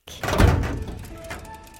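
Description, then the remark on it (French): A small metal side door into an abandoned park swings open with a dull clunk, followed by a faint, fading metallic resonance; a single short movement with no one talking. “ouvre une petite porte métallique sur le côté et fait entrer ses deux amis dans le parc.”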